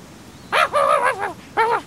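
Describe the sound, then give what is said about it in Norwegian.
A dog gives a run of short, tonal barks and yips, three or four quick bursts followed by a pause and one more bark, with no voices. “Du, nei, jeg forstår ingenting av hva du bjeffer.”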